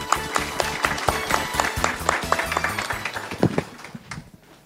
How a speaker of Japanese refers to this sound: どうぞ大きな拍手をお願いいたします